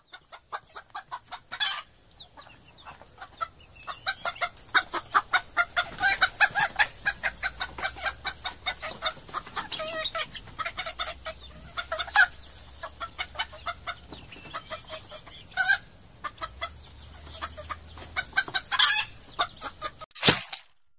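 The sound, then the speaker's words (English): A flock of chickens clucks busily and continuously, with dense overlapping squawks and clucks. The clucking runs throughout with no one talking. “Fam, Indians are out there breeding samurai chickens with okapi katanas.”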